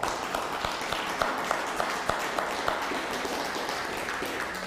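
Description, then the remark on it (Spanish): A crowd applauds steadily for several seconds during a live-streamed gathering, a dense wash of many hands clapping with a few sharper individual claps standing out at a fairly even pace. “Nuestra hermana Bertita Palafox, que nos está viendo aquí en la región, un fuerte aplauso.”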